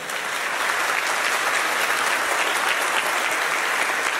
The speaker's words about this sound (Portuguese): Vamos aplaudir a nossa missionária.